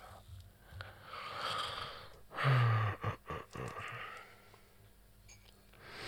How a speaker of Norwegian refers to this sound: Beklager for snufsinga igjen. Du får bare holde ut, eller så får du skru av.